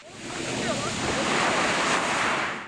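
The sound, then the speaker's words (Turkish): Steady surf washing onto Konyaaltı beach in Antalya, Turkey, on a warm 20-degree day with 18-degree sea water, a broad continuous roar of waves with some wind buffeting the microphone; faint indistinct voices may sit beneath it. “Kimisi su sıcaklığının 18 derece ölçüldüğü denizin tadını çıkardı.”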